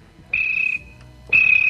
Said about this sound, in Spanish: Los grillos, ¿no los oyes?